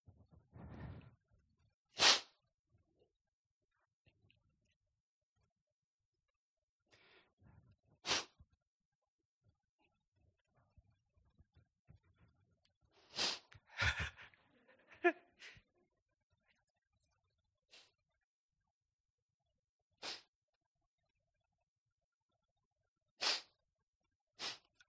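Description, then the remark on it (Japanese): A string of sharp, isolated sneezes and sniffles caused by allergies, spaced a few seconds apart, with faint snorts and breathing between them against an otherwise quiet background. “アレルギーによるくしゃみ、鼻水、鼻詰まり。”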